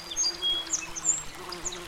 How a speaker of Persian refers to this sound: صدای هیاهوی پرستوها